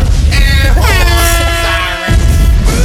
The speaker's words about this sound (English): screams falling out of a building.